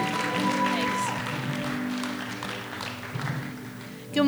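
Steady applause from an audience welcoming someone as they come up, a dense wash of clapping that holds for several seconds alongside a faint sustained musical tone, swelling briefly at the very end.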